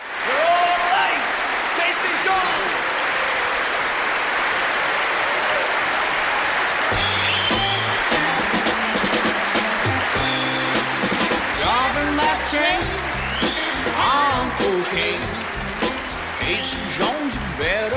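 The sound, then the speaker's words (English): Crowd noise at the start of an LP record, heard as the needle drops: a roaring crowd cheers and applauds in a steady, loud wash of noise; after several seconds, music with a deep bass line begins while the crowd noise continues underneath. “was a giant photo of a huge speaker system, you could be forgiven for thinking that it was a live album from that festival, especially when you dropped the needle on the LP and immediately heard the sound of crowd noise.”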